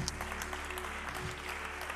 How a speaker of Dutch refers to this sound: Laten we een hartelijk applaus geven.